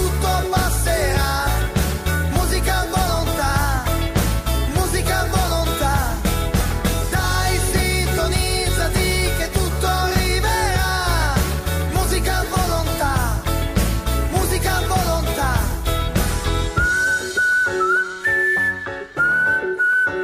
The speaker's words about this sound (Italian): Bene ragazzi, ci siamo ascoltati questo inno d'amore nei confronti della radio perché è un vero inno d'amore